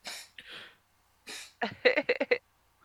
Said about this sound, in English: I think my cat's my cat's back there is coughing.